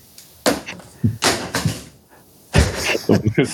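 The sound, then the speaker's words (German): An iPhone drops onto a hard surface, making a series of sharp clattering knocks spread over a few seconds, with short pauses between the louder impacts. “Am Sound des Endgerätes zu erkennen, was mir da gerade runtergefallen ist.”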